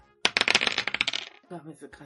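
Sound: two dice being rolled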